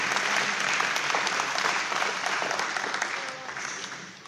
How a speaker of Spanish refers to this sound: Denles un aplauso fuerte, por favor,